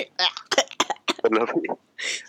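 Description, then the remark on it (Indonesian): Choking coughs from someone who choked on their own saliva: a quick run of harsh, sputtering bursts, then a raspy gasping breath at the end. “agak males dengernya ya keselak udah sendiri asli”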